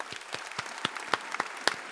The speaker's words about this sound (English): Why don't we clap it out?